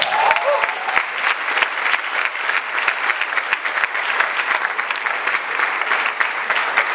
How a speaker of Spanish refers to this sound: Un fuerte aplauso para la organización.